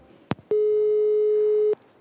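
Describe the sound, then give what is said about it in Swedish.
A single steady telephone tone while calling someone back after a missed call, clear and fairly loud, holds for just over a second, framed by faint clicks before and after, with no voices. “Och när jag försökte ringa upp”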